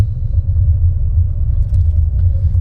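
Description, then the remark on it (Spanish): Heavy traffic of about 15 cars idling and creeping, making a steady, loud low-pitched engine rumble that continues throughout with no one speaking. “ya hay bastantes carros, hay como unos 15 carros.”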